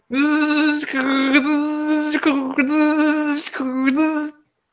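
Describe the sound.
A voice imitates a noisy ribbon dot matrix printer with loud, buzzy, nasal droning, broken into about four sustained bursts with brief pitch dips between them, with no other talk.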